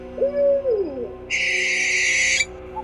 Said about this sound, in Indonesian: Burung hantu memanggil wanita langit.